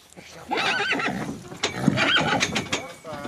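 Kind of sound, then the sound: animal, horse neighing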